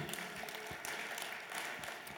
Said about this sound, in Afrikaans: Kom ons gee haar hande klap. Amen.